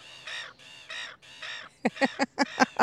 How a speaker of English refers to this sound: I have no idea what they are actually saying because I don't speak seagull. I just love it. I'm just. It's like great. they're mimicking us, just doing all of this talking.